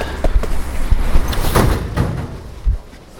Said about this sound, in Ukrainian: Обережно. Двері зачиняються. Наступна зупинка станція проспект Гагаріна.